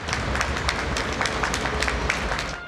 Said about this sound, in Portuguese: Enquanto a situação não normaliza, moradores vão até a janela de casa para uma salva de palmas dedicada aos trabalhadores da saúde, como médicos e enfermeiros.